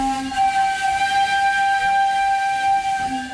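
A steam train whistle blows at the start of its journey on the tourist line between Tiradentes and São João del Rei, in the Campo das Vertentes region, recorded in Tiradentes: one long, sustained, steady wail, its bright harmonic tones held for several seconds before cutting off, heard loud with no one speaking.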